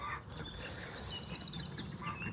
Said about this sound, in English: you can now walk straight out into the meadow and to my right is a big pile of scrap, and to my left, the chickens who've had a serious upgrade.